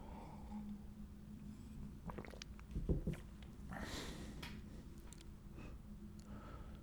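A quiet sip of coffee: a soft thud of the cup, then a brief airy slurp, with faint handling noises around it and no one speaking.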